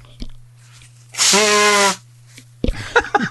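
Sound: nose blowing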